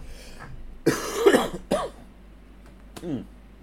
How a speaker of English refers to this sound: Oh, man, I'm coughing a lot this episode.